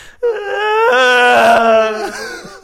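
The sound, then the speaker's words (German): A person imitates how they imagine a whale swimming past, with one long, wavering vocal moan that swells and then fades over about two seconds, fairly loud, with no words. “wie, wie der Wal an dir vorbeischwimmt.”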